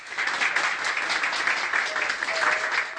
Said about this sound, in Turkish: İyileşenlerin alkışlar eşliğinde taburcu olma görüntüleri umutlandırıyor.